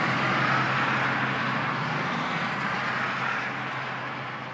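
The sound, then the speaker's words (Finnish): A steady, dense roar of passing vehicles beside a motorway, at the Tervakoski ramp along Highway 3, fills the whole recording, loud and continuous with a low hum underneath, fading slightly toward the end, with no voices. “Tämä paikka on moottoritien varrella.”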